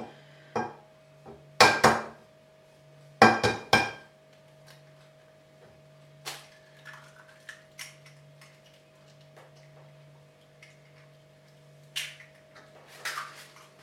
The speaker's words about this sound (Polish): ja zawsze sobie wbijam jajka albo do głębokiego talerzyka, albo do jakiejś małej miseczki